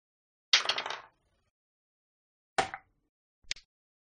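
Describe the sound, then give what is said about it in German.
Dice clatter across a hard surface in three separate rolls as initiative is rolled: a longer rattling tumble first, then two shorter clicks of dice landing, with no talking. “Die bewacht die Tür, der springt in den Raum rein und ihr würfelt eine Initiative.”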